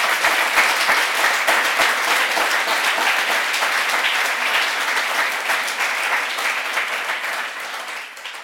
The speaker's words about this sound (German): Applaus